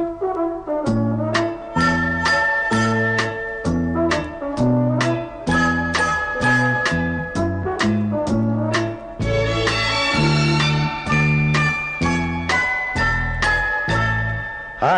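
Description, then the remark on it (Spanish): A cheerful children's song about ducks learning music and solfège plays its instrumental passage: a bouncy, tinkling melody over steady plucked bass notes, loud, with no voices heard. “Los patos que aprenden solfeo en esta bonita canción de ….”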